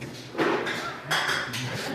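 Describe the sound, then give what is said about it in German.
Glass and porcelain items rattle and clink together in the glass and porcelain department of a busy shop, in a few irregular bursts of bright clattering, with a steady, fairly loud background bustle in between. “In der Glas- und Porzellanabteilung, da rumpelt es ein bisschen.”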